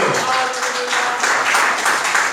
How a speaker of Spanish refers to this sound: Dele a Cristo el aplauso, por favor.